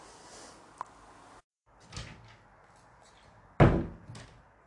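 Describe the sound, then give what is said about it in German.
Footsteps and rustling move about as someone leaves the room, then a heavy thud lands like a door swinging shut, followed by a softer knock as it settles; no one speaks. “Na gut, dann gehe ich jetzt mal aus dem Zimmer.”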